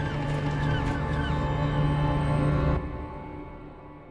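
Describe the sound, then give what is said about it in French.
A group of penguins, after advancing a little and stopping, cry out in loud, drawn-out, honking calls that overlap into an eerie din, cutting off sharply near the end and leaving a quieter background murmur. “Aucun de nous n'avait jamais entendu les manchots crier ainsi.”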